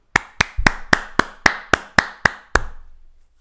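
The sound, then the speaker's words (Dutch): Sparse applause of nine sharp, evenly spaced claps in a slow steady rhythm, loud and without any talking, with a brief ringing tail after the final clap. “Even applaus.”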